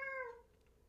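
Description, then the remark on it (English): A single short cat meow, clear, with a bright harmonic tone that slides slightly downward and fades out within half a second over a faint background. “Of course, the cat is here.”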